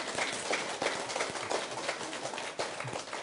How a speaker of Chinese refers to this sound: 哎，鼓掌一下来